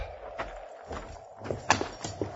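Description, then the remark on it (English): A horse is walked up to a water trough by a pump, its hooves landing at an unhurried, slightly uneven pace, several hollow clops over a faint background hiss, not loud. “Dismount and walk your horse up to that trough by the pump.”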